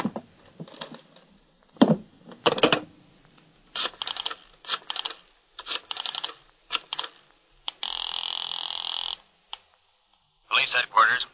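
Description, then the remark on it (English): Irregular bursts of rustling and clattering as papers are shuffled and shoved around in a desk drawer, followed by a steady buzzing telephone tone as someone phones headquarters, and a few more brief rustles. “get headquarters on the phone while I go through this desk drawer.”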